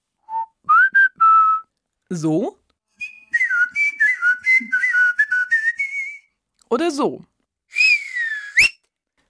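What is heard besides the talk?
human whistling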